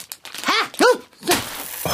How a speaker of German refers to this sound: Oh, du hast mir die Tüte aus der Hand gerissen. Jetzt liegen die ganzen Kerne auf dem Boden herum.